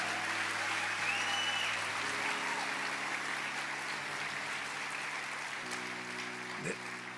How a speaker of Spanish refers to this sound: Bueno, vamos a dar un aplauso a todos los que nos visitan por primera vez.